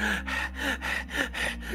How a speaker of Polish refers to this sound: I tak zaczynam dyszeć.